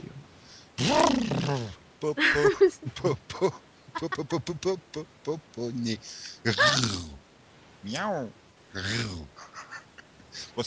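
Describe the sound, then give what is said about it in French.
A person imitates a tiger's roar with a string of growling, breathy vocal bursts, some rising and falling in pitch, fairly loud, with short pauses between them. “Vas-y, refais-nous un, petit coup de tigre.”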